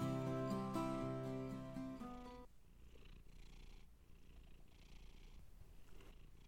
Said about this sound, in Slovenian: Od tišine do mačke, ki se nam je pridružila na vožnji